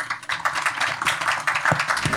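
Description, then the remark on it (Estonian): A crowd applauds the panel speakers steadily, a dense patter of many hands clapping together at moderate loudness, sustained throughout with no voices. “aga ma tänan paneliste, väga põnev oli teiega, aeg lendas Äh, ja, ja, ja teid, head arvajad ja kuulajad ja, ja palun teid ühinema aplausiga meie äh, rääkijatele, aitäh.”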